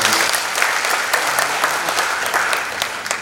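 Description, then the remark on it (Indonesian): An audience applauds together, a dense, steady wash of many hands clapping at a fairly loud, even level for a few seconds without any clear voices. “Berikan tepuk tangan buat kita.”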